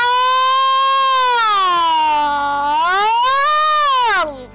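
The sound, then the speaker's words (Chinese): A voice imitates a wailing alarm siren with one long, loud, unbroken "woo" that holds steady, sags lower in pitch, climbs back up, then falls away at the end. “我给你提提报警声。呜！”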